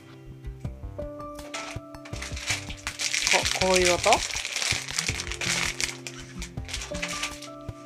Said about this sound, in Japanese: 動作音とかなんか差し入れのお菓子をこう袋を開ける例えばどういう音だろう